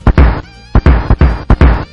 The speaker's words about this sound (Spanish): con estos cañonazos tradicionales que Sergio está insertando a través de la magia de la edición